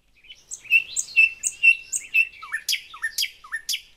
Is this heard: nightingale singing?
yes